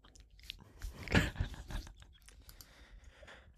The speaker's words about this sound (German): immer, wenn ich so ein Stück Seife fast aufgebraucht habe und da ist bloß noch so ein kleines, ein chipartiges Ding von über, dann werfe ich das Stück Seife hinter den Mülleimer und dann hört man so ein Knuspern.